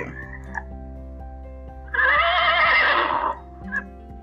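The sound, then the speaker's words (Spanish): A single horse neigh rings out for about a second and a half, loud, with a wavering whinny quality, set over a steady low background hum with faint clicks. “Sacó una caja enorme de juguetes y todos comenzaron a jugar nuevamente el perro, la rana y el caballo.”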